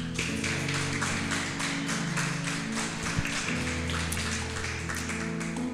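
An audience applauds the Lord during a church sermon, steadily for several seconds, a dense wash of overlapping claps, with low sustained musical tones humming underneath throughout.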